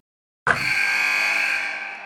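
After a brief silence, a loud buzzer blares abruptly and holds a harsh, steady tone for over a second and a half, like a game-ending horn in an arena, with no voices.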